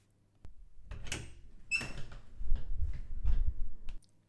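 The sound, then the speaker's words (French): A door in a house is swung and handled as someone searches behind it for a child's cuddly toy, with a few sharp knocks and scraping creaks followed by a run of low rumbling bumps that stop abruptly after a few seconds. “Derrière la porte,”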